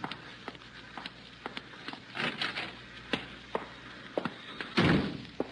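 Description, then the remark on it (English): A side door of an art gallery creaks and is pushed open, followed by a series of knocks and clunks, then a heavy thud as it swings shut, with no voices. “He left the side door open.”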